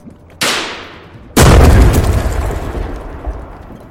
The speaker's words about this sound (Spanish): La explosión fue potente Artyom estuvo a punto de caerse del techo. El tren se tambaleó.